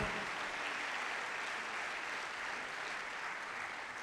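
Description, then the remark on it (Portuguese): An audience at a church service claps together as praise to the Lord, in a dense, steady burst of applause that holds at an even loudness for about four seconds, easing slightly at the end, with no voices over it. “Dê uma salva de palmas bem forte ao Senhor.”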